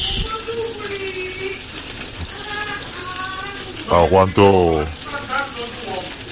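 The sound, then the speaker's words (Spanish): Steady crackling sizzle of food frying in a lot of hot oil runs the whole way through, loud, with a person speaking briefly over it near the end. “Pues bien, este sonido de fondo es porque ahora mismo me estoy friendo los testículos eh, con un montón de aceite”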